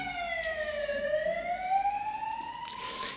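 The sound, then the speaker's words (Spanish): An ambulance siren wails as it passes by, its tone sliding down and then climbing back up in a slow, continuous sweep, loud and steady with no voices over it. “Vamos a dejar pasar la ambulancia.”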